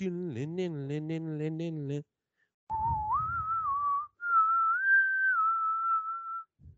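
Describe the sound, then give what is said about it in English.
A voice speaks briefly, then after a pause someone whistles the eerie theme music of The X-Files: long, sustained notes that slide upward and hold, clear and fairly loud. “Cue but, the X Files music right here.”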